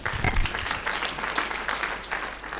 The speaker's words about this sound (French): On acclame le Seigneur pour la révélation